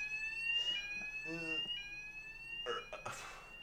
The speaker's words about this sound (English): hang on, I don't know what's going on. I think the fire alarm in my building's going off.